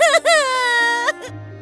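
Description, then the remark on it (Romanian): A single drawn-out, loud wailing cry, with the voice bending in pitch at the start and end before breaking off into a low hum. “nu e timp pentru plâns.”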